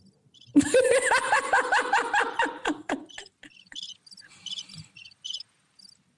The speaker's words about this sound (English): you're gonna hear some crickets, okay?